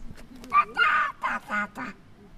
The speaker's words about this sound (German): Da, die Ente. Guck mal. Die Ente schwimmt da zum, zur Krähe hin.